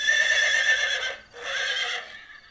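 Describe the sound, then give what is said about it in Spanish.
Horses neigh in two loud, shrill bursts, the first a long whinny that fades into a brief pause before a second agitated cry, with no speech. “Una noche los caballos estaban tan alterados que mi tío”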